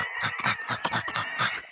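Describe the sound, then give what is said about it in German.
A person imitates a panting dog, like a Yorkshire Terrier sniffing over the floor, with quick, rhythmic breathy huffs, about eight short bursts in under two seconds, fairly loud and steady. “macht gerade äh, wie so ein Hund nach, der gerade hier so hechelnd über dem Boden”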